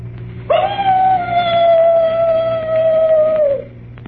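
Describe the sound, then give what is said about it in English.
A person imitates a mournful dog howl as a standard ghost-story sound effect, with one long, loud, steady wail that sags slightly in pitch and fades after about three seconds, over a faint low hum. “The mournful howl of a dog.”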